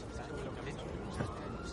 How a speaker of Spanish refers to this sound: Con tanta sirena no hay quien duerma.